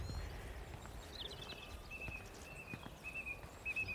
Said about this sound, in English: the goldfinches making a kind of rattling, tinkling